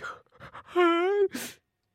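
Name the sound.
a person yawning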